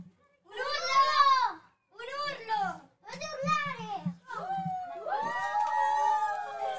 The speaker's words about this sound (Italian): Allora, intanto, intanto noi non ce ne eravamo accorti, non ce ne eravamo assolutamente accorti, ma si è creata una piccola folla qua sotto che se vogliamo possiamo far sentire.